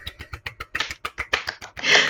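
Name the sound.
hand clapping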